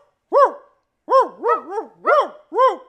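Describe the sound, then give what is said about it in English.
A person mimics a dog barking at a real dog: a single woof, a short pause, then five quick woofs in a steady rhythm, fairly loud with no other voices. “Look, look we gonna bark at the dog.”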